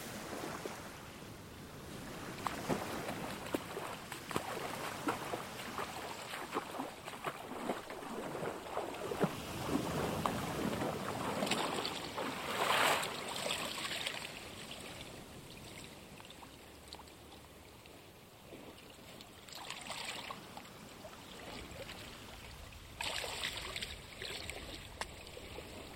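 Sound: water lapping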